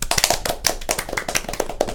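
A short round of applause: several people clapping together in a quick, irregular patter of sharp, bright claps that stays fairly steady in loudness, with no one speaking over it.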